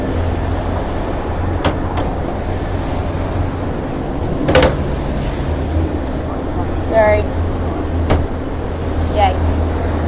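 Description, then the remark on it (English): A cupboard door bangs sharply several times at irregular intervals aboard a boat, over a steady low engine rumble and rushing water, with a few faint creaks in between. “had a bit of an issue with a cupboard.”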